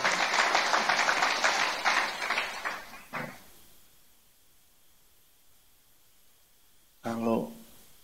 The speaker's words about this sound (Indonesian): Katakan amin. Ayo kita berikan tepuk tangan dulu. Haleluya.